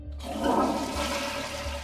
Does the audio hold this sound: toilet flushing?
yes